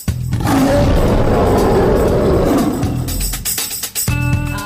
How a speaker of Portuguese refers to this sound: Por isso, que ruge o leão.